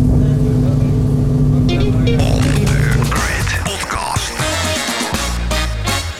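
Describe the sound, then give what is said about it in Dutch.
On a ferry with a view over Amsterdam, on Tuesday 1 December 2020 after the rain has stopped, a steady, loud engine drone rumbles at first, then gives way to busy onboard ambience with clattering, shifting noise and indistinct voices in the background. “Ja, zo klinkt het hier op de veerboot”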